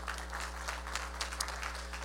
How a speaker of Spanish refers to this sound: Dame un aplauso fuerte, Señor, por favor, dáselo fuerte.